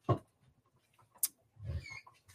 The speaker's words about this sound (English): Sorry, that was a dog, not a human, I promised.